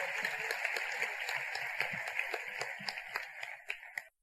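A crowd at an Amway business event applauds steadily for the leaders, diamonds and executive diamonds in the room, a dense wash of many hands clapping with a few sharper individual claps standing out, tapering off near the end.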